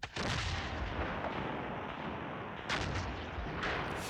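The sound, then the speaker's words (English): A dense, continuous roar of battle at a French fort by the water, with cannon and musket fire rumbling together and a couple of sharper blasts bursting out near the end, loud, with no voices. “For more than three hours, the continuous roll and thunder of cannon and muskets deafened everyone, and the ground shook.”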